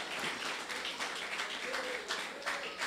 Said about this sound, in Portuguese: Batendo palmas, querido, e glorificando a Cristo. Bata palma para Cristo. Para Cristo, aleluia.